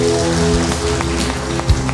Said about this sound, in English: Let's give the Lord a mighty round of applause, please.